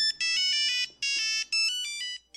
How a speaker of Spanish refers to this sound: Cuando tu teléfono sonaba así